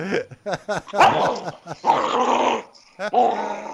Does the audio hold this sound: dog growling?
yes